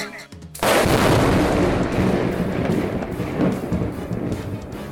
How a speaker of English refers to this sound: Lightning strikes the ring, causing changes inside Dwayne Bronze.